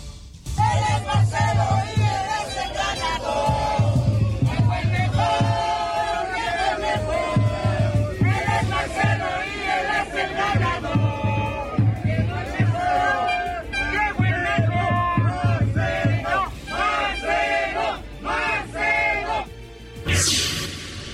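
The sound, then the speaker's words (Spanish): A large crowd, a contingent of Morena supporters from Tlalnepantla, State of Mexico, chants a cheer in favor of Marcelo Ebrard in rhythmic unison, voices rising and falling in repeated phrases, loud and dense throughout, with a burst of broader noise near the end. “Lo que estamos escuchando fue parte de la porra a favor de Marcelo Ebrard de un contingente precisamente de Morena, originario de Tlalnepantla, Estado de México.”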